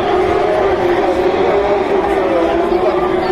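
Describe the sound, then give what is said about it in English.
A loud, dense crowd roar carries on without a break, cheering and shouting blended with a steady, droning hum of race cars passing at racing speed at the 2014 Le Mans race, heading through the Tête Rouge section. “Off they vanish through Tête Rouge.”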